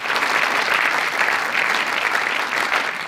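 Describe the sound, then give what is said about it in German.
A cinema audience claps steadily after exactly 90 minutes of a screening of eight short films, a dense wash of many hands at an even, fairly loud level that holds for the full stretch without pause or talking. “Nach exakt 90 Minuten gab es Applaus vom Publikum.”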